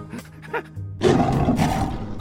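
A lion's roar bursts in after a quiet second, loud and rough, rumbling low for over a second before fading slightly toward the end.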